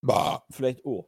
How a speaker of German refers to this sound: der hat gerade gerülpst, das aber du gehört.